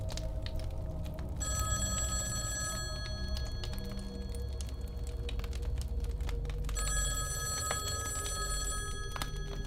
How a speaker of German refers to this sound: Ach ja, das Telefon. Immer wenn wir den Raum verlassen wollen, klingelt es unentwegt. Dies kann ganz schön nervend aufreibend sein.